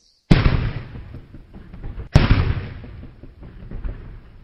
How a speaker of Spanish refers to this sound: Suena el cañón en señal de saludo, de triunfo, de enhorabuena por los festejos de paz y como bienvenida a la conferencia magistral del Premio Nobel, Jean-Marie l'Eclesiot.